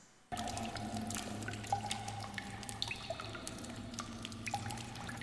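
Water drips steadily in irregular plinks over a constant low hum, echoing like drops falling in a cave, heard at night from bed in an old house over 100 years old. Fairly soft, with no voices.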